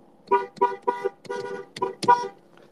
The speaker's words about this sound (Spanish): Hicimos resistencia civil, paramos la Panamericana y todo Ciudad Juárez y todo Chihuahua, sociedad, nomás se oía esto, mira, en el claxon, esto, mira.